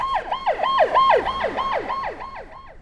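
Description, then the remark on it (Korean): An ambulance siren wails in a fast, repeating up-and-down sweep, roughly six cycles in three seconds, loud with no voices over it, heard on a school campus. “학교 안에 30일이나 여기저기 알아듣지 못하는 소리만 둥둥 떠다니는 곳에 구급차 사이렌 소리가 선명하게 들려왔다.”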